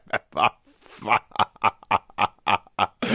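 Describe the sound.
A man vocally imitates an elephant with about ten rapid, squealing, pig-like blasts in quick rhythmic succession, loud, with no other sounds around them.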